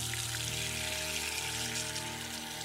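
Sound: water running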